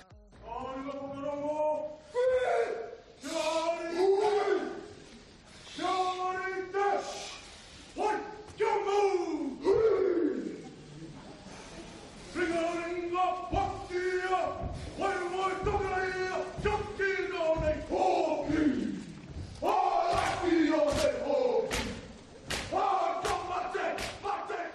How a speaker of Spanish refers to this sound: Bueno, esto que estamos escuchando es la jaca, que en rugby, sobre todo en Nueva Zelanda, es muy típico.